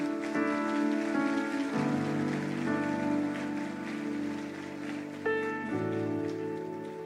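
A church audience applauds the Lord in a steady, dense wash of clapping that lasts the whole clip, while sustained keyboard chords ring underneath and shift a few times.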